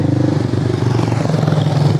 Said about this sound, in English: and motorbike driving past. Of course, they all they all drive up this quiet street as soon as I hit record.